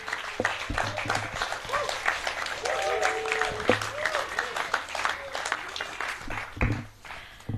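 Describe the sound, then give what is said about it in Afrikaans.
An audience applauds the evening's poets steadily for several seconds, a dense patter of many hands clapping, with scattered voices and a few cheers rising through the noise. “So kom misschien nog aan, hande klap vir al die digters vanaand.”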